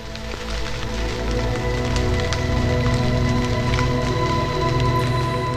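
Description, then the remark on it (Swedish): Steady rain falls continuously over a low, droning hum, with scattered sharp drip-like taps scattered throughout; no one speaks. “Det regnar svavelsyra på Venus.”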